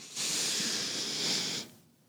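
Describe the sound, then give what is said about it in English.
A single long, airy intake of breath taken during a cleansing ritual, about a second and a half, steady, with a hissing quality and no talking. “Big breath in,”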